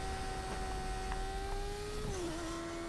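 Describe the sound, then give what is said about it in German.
A steady motorcycle engine drone in a video game with a sustained tonal whine that holds pitch, then dips slightly near the end as if shifting or easing off, continuous and fairly loud with no talking. “ich nehme Motorrad, ja. Ich bin damit schneller als.”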